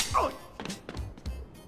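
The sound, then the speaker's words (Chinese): Several sharp, fleshy smacks land in quick succession: slaps across the face between two men crouching in a subway station, playing a card-flipping game and slapping after each flip. A brief vocal sound comes at the start, with low background noise between the hits. “乘客们都惊呆了，只见两个大男人蹲在地铁站里拍卡，拍一下抽个大嘴巴子。”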